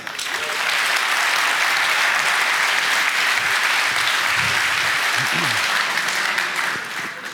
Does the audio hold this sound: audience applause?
yes